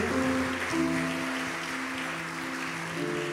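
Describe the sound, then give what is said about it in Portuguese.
A church audience claps steadily for a few seconds, applauding Jesus as two little sisters and their parents are welcomed. It is a dense, even wash of applause, with sustained keyboard or organ chords holding underneath throughout. “Vamos aplaudir a Jesus pela vida deles, delas.”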